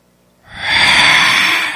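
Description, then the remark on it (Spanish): A single heavy, breathy exhale blown into a microphone, rising quickly after a brief quiet start and sustaining as a loud, airy hiss for over a second. “Eso suena como que alguien ya está ahí. Eso se escuchó como eco la. Sí, echando el aliento.”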